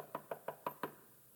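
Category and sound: impact, knocking on a door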